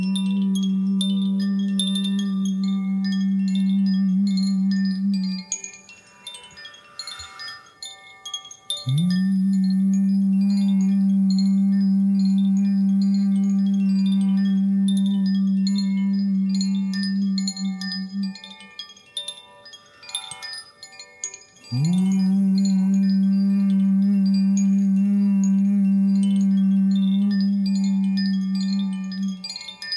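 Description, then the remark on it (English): A loud, steady low humming tone, hummed during a live meditation to connect energy fields all over the world, holds in three long stretches, with short drops in between where it fades out and then starts up again at the same pitch. “Three, two, one. Connect. Hum.”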